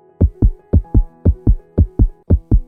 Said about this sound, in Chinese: 这时候的你心脏跳得很大声，你很担心旁边的空服员会不会听到你的心跳声。但你越这样想。你的心跳声越跳越快，